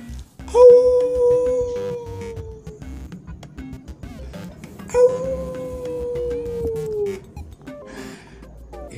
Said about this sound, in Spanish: un lobo cantándole a la luna. Se había olvidado que ese día, o mejor dicho, que esa noche era luna llena. Todo el mundo sabe que a los lobos les encanta cantarle a la luna cuando es luna llena.